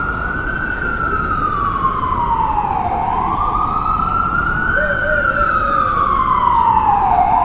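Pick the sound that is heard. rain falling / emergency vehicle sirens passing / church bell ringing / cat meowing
emergency vehicle sirens passing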